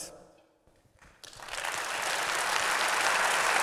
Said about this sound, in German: Applaus